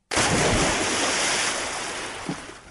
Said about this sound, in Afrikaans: Die water stroom en spuit by sy mond uit.